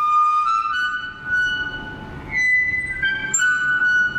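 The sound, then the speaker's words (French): A wire-mesh gate creaks loudly, drawing out long, high-pitched squeals that waver and shift in pitch over a few seconds, with no one talking. “Ça, par exemple, c'est une porte grillagée qui grince.”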